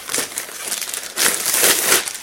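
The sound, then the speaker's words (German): A plastic packaging bag crinkles and rustles as it is handled and opened while a notebook computer is being unpacked from its box, a steady crackling that grows louder and busier in the second half, with no voices. “Jetzt habe ich eine Tüte.”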